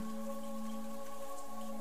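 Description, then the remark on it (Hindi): Steady, dense heavy rain falls at night, hissing continuously, with a constant low electrical-sounding hum running underneath. No voices, just an unbroken wash of falling water for a couple of seconds. “आप इतनी रात को यहां क्या कर रहे हैं इतनी बारिश में”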